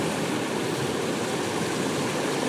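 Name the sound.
river rapids rushing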